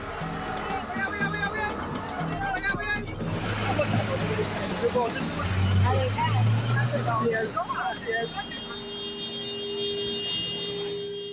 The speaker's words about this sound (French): À Port-Louis, les klaxons résonnent. L'eau s'est retirée, mais des dizaines de véhicules s'amoncellent, laissant les habitants sous le choc